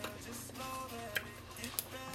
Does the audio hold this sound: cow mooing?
no